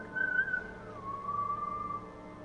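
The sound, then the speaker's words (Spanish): A person whistles a shrill, sustained two-part note, a higher pitch sliding down to a slightly lower held tone, imitating a whistle that sounds more like a blown whistle than a mouth whistle, over a soft low background hum. “Como un silbato más que un chiflido.”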